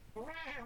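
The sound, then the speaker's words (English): A single clear cat meow from a video game, drawn out and rising then falling in pitch, loud with no talking over it. “What is go- so cats? Cats.”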